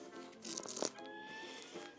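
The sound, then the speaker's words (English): Quiet rustling and shuffling as a person handles and moves items about while trying to find their place from last time, with a brief cluster of louder scrapes and taps in the middle and no talking. “That's the thing that all this shuffling around is the sound of me trying to find my place from last time.”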